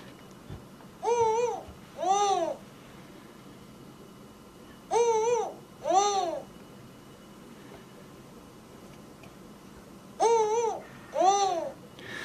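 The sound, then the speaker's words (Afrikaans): Spotted eagle-owls call in a male and female duet: three spaced pairs of short, hooting, wavering calls, one answering the other, over a quiet background hiss. “ons luister net vinnig na een van die bekende uile, die gevlekte ooruil.”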